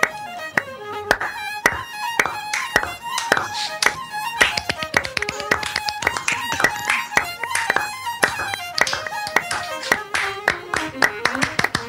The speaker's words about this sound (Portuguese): Bando de retardado mental batendo palmas.